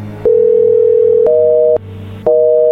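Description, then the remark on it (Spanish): A steady, loud telephone dial tone hums alone as a number is redialed, broken by sharp clicks where its pitch steps up; it drops out briefly, then a click brings the higher tone back. “a ver, márcale de nuevo, a ver si nos contesta.”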